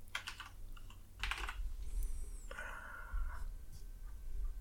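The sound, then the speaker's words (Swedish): A few crisp computer mouse clicks while clicking through web links, a short cluster at the start and another burst about a second later, over a low steady hum with no one speaking. “Jag, jag har ett klick än så länge. Ska vi se här. Två klick.”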